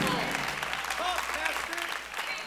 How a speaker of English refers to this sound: If y'all are getting this, clap your hands and give God praise right now.